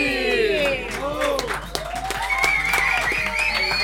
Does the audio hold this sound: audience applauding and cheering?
yes